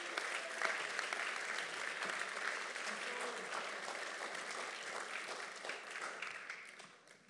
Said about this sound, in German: Gebt den Applaus.